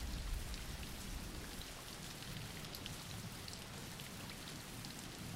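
Steady rain falls without pause, a dense hiss of countless drops spattering on a surface, with a soft low rumble underneath and no voices.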